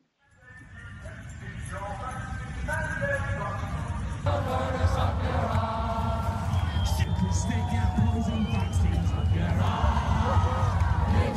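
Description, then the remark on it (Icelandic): A large crowd protesting vaccine passes and vaccine mandates chants and shouts in unison, a dense roar of many voices with rhythmic sung phrases rising above it, loud and continuous throughout, with occasional higher whistles or shouts. “það er náttúrulega gríðarlega mótmæli út af þessu og mitt út af þessum bólefna pössum”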